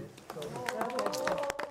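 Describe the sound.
Onlookers applaud a contestant in a jury-judged competition with quick, irregular claps throughout the short clip, while voices carry on over and around the clapping.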